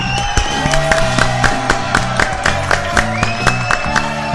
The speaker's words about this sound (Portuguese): Uma salva de palmas, Arthur Lira.